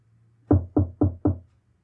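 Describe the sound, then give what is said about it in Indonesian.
Four evenly spaced knocks on a wooden bedroom door, firm, in a steady quick rhythm with a low hum underneath and quiet before and after. “pintu kamar Risa diketuk”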